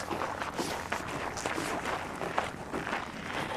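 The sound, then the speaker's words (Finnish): A third person's footsteps approach at a steady walking pace at a container terminal, a series of soft scuffing steps over a constant hiss of background noise, with no one speaking. “Tässä kuuluu kolmannetkin askeleet”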